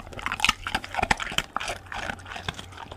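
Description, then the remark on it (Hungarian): Two dogs, Kókusz and Inci, eating their food: a steady, irregular run of crunching and smacking chewing sounds, with quick bites and licks and no one speaking. “Kókuszt és incit halljátok, ahogyan elfogyasztja a táplálékot.”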